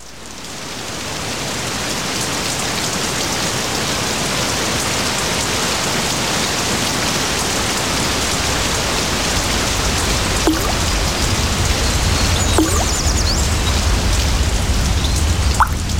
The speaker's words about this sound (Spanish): La lluvia cayó sobre el pueblo hasta agotarse.